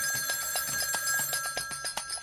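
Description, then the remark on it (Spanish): An old-style telephone bell rings steadily in a home at 11 at night, its rapid metallic clatter continuing unbroken at a moderate level with no voices. “Y el 18 a las 11 de la noche suena el teléfono en mi casa.”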